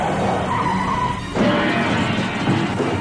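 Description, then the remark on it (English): A car skids loudly with a sustained tire squeal over roaring engine noise, the screech shifting pitch midway as the vehicle slides out of control; no voices. “You lose control of the car.”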